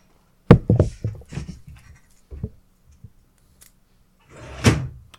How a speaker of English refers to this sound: Damn, hang on, it's it just started raining outside for some fucking reason, uh, so I need to close my window.